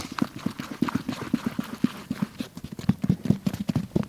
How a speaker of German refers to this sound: Und wenn es jetzt gleich so ein dumpfes Geräusch gibt, dann ist der Schaum fertig und dann kann ich ihn in das Gips negativ gießen.